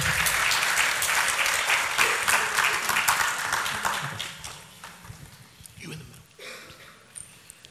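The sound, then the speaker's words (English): A crowd at a Strong Tower church gathering breaks into loud, dense applause as guests are called up, holding steady for several seconds, then thinning and fading toward the end, with a few scattered claps and murmurs lingering. “God is, yes, give him a hand, absolutely.”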